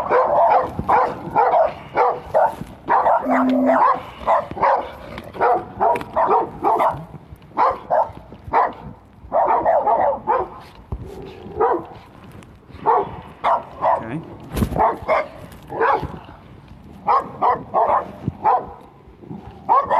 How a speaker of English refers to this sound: There's two dogs.